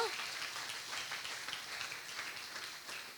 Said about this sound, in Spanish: La salvación, dale un aplauso al rey, porque eso fue poderoso.